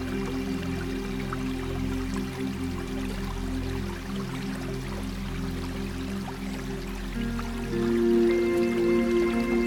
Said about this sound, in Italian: Nel momento in cui senti di aver lasciato andare tutto ciò che avevi bisogno di lasciare andare, goditi con semplicità l'acqua che scorre e tutto ciò che ti circonda.